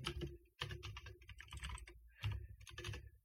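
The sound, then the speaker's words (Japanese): Rapid keyboard typing of a search, a steady clatter of keystrokes in quick bursts with a short pause near the start, heard on its own with no voices. “ちょっと覚えてないんですけども、検索しますね。”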